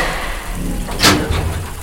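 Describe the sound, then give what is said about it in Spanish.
Doors shut with one brief, sharp impact, followed by a softer knock a moment later, over a steady hissing background. No one speaks. “Tranquila, he cerrado las puertas.”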